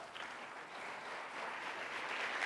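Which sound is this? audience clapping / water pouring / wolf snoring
audience clapping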